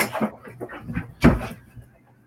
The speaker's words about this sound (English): Oh, oh, your dogs. Sorry. Okay. Norman's, Norman is like wired. He just like kicked the door in.